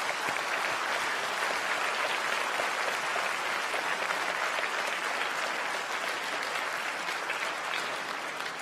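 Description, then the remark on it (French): A large crowd at a political campaign meeting in France applauds steadily and loudly for supporters who could not get into the hall. It is a dense wash of many hands clapping at once that holds its level throughout, with no voices standing out. “Et je pense qu'on peut les applaudir pour avoir une pensée pour eux.”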